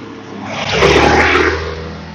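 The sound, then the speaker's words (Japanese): A motorcycle passes close by, its engine swelling to a loud, revving roar at the midpoint and then fading away over about two seconds. “バイクが近く通りましたね。”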